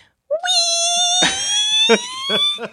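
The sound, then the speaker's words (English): A squeaky pig toy, stepped on and then released, lets out one long, steady high-pitched squeal lasting a couple of seconds, loud, with a few short breathy bursts breaking over it. “I stepped on Piggy, and like when you step on it, it doesn't make the sound. It's when you release it”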